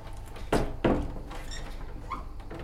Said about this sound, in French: J'ai la manie de fermer les portes, moi.